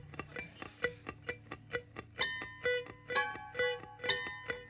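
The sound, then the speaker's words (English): A grandmother's old grandfather clock, standing in the corner, ticks in a steady, even rhythm, and partway through, ringing bell-like tones start to sound over the ticking. No one speaks. “Das ist die alte Standuhr im Ecken vom Omi.”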